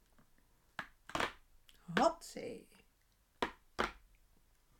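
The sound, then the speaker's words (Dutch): A packet of red-and-white candy sticks (zuurstokjes) being torn open: a few sharp, crinkly plastic rips in separate bursts, with a voice briefly speaking between them. “En ik ga hem openmaken, dus geniet even van het moment.”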